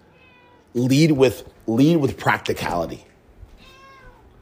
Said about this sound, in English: Sorry about the cat there, guys.